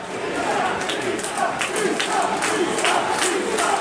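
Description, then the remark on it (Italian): A large stadium crowd at a football match involving Pisa, around the 97th minute, chants and roars steadily, a dense wash of voices with rhythmic swells of shouting rising every second or so, sustained and fairly loud throughout. “Eh, il resto dello stadio prova in qualche modo ad accendere la situazione, ma eh, non è la stessa cosa.”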